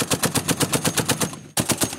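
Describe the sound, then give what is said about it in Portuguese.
Rapid machine gun fire in a battle royale shooting video game, loud, with evenly spaced shots in a steady stream that breaks off for a split second, then resumes at the same pace. “É um jogo de tiro.”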